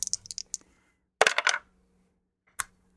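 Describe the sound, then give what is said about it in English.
Polyhedral dice clatter and tumble across a hard surface as they are rolled to pick contest winners: a quick run of light clicks, a louder rattling burst, then one last sharp click as they settle, with no voices. “has the polyhedral dice, and, and I have the list.”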